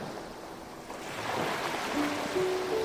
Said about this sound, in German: Ruhe dich etwas auf der Düne aus und beobachte das Spiel der Wellen.